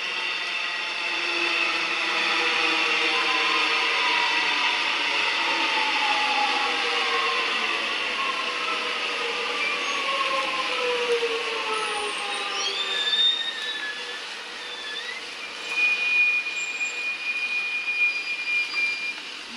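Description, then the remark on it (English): A nearby train rumbles loudly as it slows, its droning tones sliding downward, then sharp high-pitched wheel and brake squeals break out over the final seconds as it comes to a stop. “Or, okay, wait for the train to go past.”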